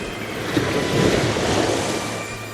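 Loud, broad ocean surf roars steadily with a gentle swell in the middle, high waves breaking against rocks on a beach, mixed with a low rumble and some wind noise. No one speaks.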